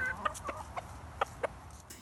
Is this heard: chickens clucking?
yes